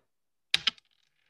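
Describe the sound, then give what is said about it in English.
Dice clatter onto a hard table: three quick, sharp clacks in succession, then a faint, brief rattle as they settle. Fairly quiet, with no talking. “Right when I right when I hear the dice at the right when I hit the dice hit the table, I'll lift up the paper I wrote it on.”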